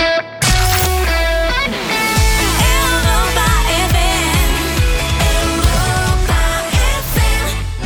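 A bright, upbeat pop rock song plays loudly and continuously on the Europa FM radio station, with a steady driving beat, strummed guitars and sung melody lines, no talking over it.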